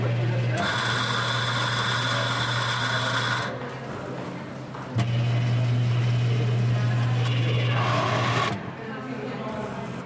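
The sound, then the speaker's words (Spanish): A coffee machine's grinder grinds beans for a freshly ground espresso, whirring loudly in two sustained bursts of several seconds each, a steady buzzing motor drone with a short pause between them. “Claro, los primeros sonidos son de un molino del café.”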